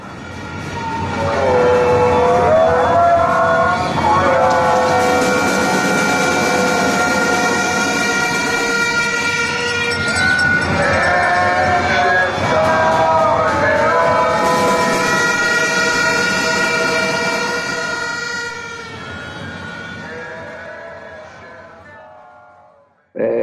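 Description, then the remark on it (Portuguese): A loud, unbroken blare of many horns and whistles from a noisy protest crowd, overlapping tones droning on for about twenty seconds before cutting off, with no clear speech. “Todo mundo traz instrumento, traz apito, traz é, corneta e põe, e põe é, protetor, ah, o, protetor auricular.”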